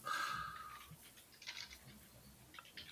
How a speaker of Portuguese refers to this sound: desculpa, lá estou a ouvir um teclado aí. Distraído.